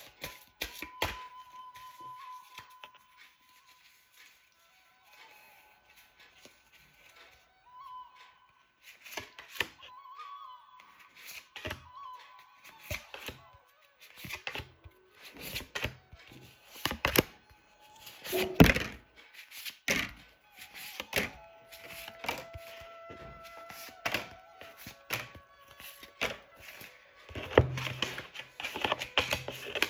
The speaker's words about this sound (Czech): A já už se dívám na vaši fotku, míchám u toho karty a my se spolu podíváme.